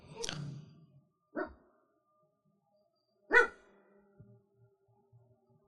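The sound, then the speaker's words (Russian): A dog lets out three short, muffled woofs in its sleep, spaced a second or two apart, with faint soft huffs trailing off into quiet afterward. “Это, Это кто? он во сне.”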